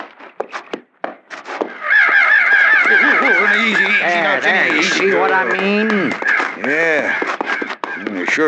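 A large flock of crows caws loudly and continuously, dozens of harsh overlapping calls forming a raucous chorus after a few scattered sounds at the start.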